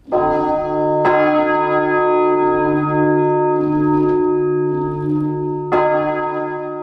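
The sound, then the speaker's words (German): A large, tonne-heavy church bell, switched on to ring, sounds very loud from about two metres away, over 100 decibels, with strikes spaced irregularly as it begins swinging, each deep booming tone and its rich overtones sustaining and overlapping the next. “hier hört man, wie die Glocken so langsam in Schwingung geraten.”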